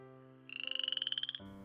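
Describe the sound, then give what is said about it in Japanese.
A frog, sitting on a tree among leaves the same colour as itself, croaks in one quick trilling burst of about a second, a rapid run of chirpy pulses that rise slightly in pitch, over a steady droning background. “カエルさん見つけた。”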